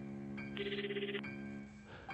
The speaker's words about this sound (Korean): 그때 집 전화벨이 울립니다.